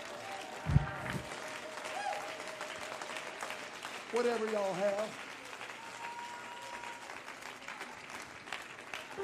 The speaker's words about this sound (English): Stand and clap your hands and thank God for the church.